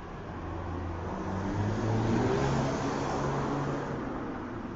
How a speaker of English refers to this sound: You heard that piece of shit pass, right? Another one. Another shithole car just passed by. Loud, fucking loud and annoying cars.